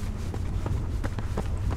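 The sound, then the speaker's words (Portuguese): Quick, rhythmic footfalls of someone running, each step a short thud, steady over a low continuous rumble, with no voices. “Não sei explicar direito, mas eu sempre penso em você enquanto eu tô correndo.”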